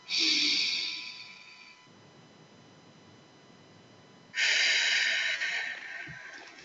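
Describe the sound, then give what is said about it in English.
A deep breath drawn in through the nose, filling the belly, a short pause, then a long, airy exhale out through the mouth, as if through a straw, during a breathing exercise. Both are fairly loud, with no talking. “See how big you can make your belly? A little bit bigger. And then out through your mouth. Like through a straw.”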